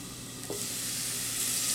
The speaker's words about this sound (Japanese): あいい音ですねで水を入れたらフライパンの蓋をしてください蒸し焼きにしていきます割とねやっぱ目玉焼きって早くできますよねでここで黄身が白くねこう覆われたら完成ということでね